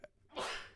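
A single sharp sneeze bursts out, a quick intake followed by a loud, breathy explosive release that fades out within a fraction of a second.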